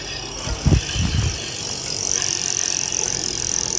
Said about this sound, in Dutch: Ik weet niet wat het is, maar het klinkt niet goed. Het klinkt niet goed, vader. Dat is mijn fiets. Ja, ja zo'n vermoeden had ik wel. Maar er is iets stuk. Er, is iets, eh, er was iets goed stuk, er was ook iets compleet verdwenen.